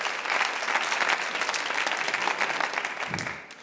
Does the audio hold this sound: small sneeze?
no